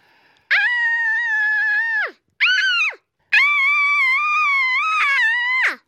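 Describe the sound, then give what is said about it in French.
Two children, recorded in a studio, shout three loud, high-pitched cries one after another, each a sustained open vowel that drops in pitch at the end, with brief silences between them and no other talk. “venus au studio pour enregistrer ces menus cris, bien loin de la réalité que mes tympans vivent chaque jour.”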